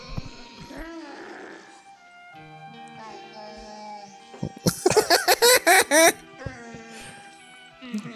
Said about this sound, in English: Are there no subtitles? Is this literally the whole movie? Yeah. just them making barking noises. Oh my god! You're in for a treat, folks. They're all just screaming and yelling at each other.